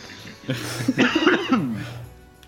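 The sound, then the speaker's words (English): A harsh coughing fit from something caught in the throat: several rapid, raspy coughs bunched together over about a second and a half, strained and throaty, trailing off into a quieter breathy rasp. “I was coughing so badly.”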